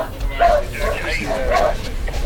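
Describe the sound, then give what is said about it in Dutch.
A dog barks in short, repeated yips, with a couple of sharp bursts over a busy background of murmuring voices and shuffling noise. “Hou rekening met elkaars honden, jongens.”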